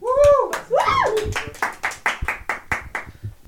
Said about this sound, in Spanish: Aplausos.